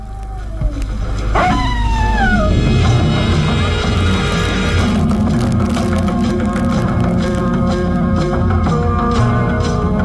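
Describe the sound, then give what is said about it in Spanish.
Prowling wolves give long, gliding howls that rise and fall over a dense, rumbling background, several overlapping in a sustained chorus that stays loud throughout. “Con movimientos ágiles, se aleja confundido entre las sombras, al tiempo que se oyen los aullidos de los lobos que merodean.”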